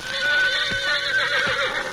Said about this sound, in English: The first faint light of dawn broke over the eastern sky. The shrill whinnies of Dan's horse Victor roused Lund from his sleep.